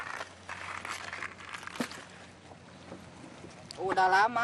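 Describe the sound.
A steady wash of boat and water noise on a boat ride on the Sitarum River, called the dirtiest river in the world, with household waste floating on the surface, with a man who collects plastic bottles and cups; scattered rustling and one sharp knock partway through; a voice briefly speaks over it at the very end.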